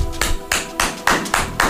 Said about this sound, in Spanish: Estamos dándole un aplauso, ¿no? Al presidente municipal de, de allá de Vallarta.